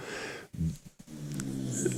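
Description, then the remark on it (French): Snoring: low, rumbling breaths with a throaty rattle, one short snort followed by a longer drawn-out snore, moderately loud, with no talking. “T'as fini de ronfler, toi Je sais que je t'ennuie, mais quand même.”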